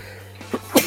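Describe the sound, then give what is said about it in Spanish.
A single abrupt sneeze bursts out near the end, preceded by a couple of short catching breaths, over a steady low background hum. “Salud.”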